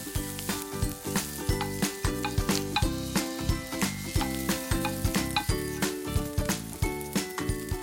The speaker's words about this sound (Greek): όπως είναι και έχει συσταθεί το λάδι, κατευθείαν θέλω να βάλετε μέσα τα καρότα και τα κρεμμύδια. Ο ήχος γνώριμος.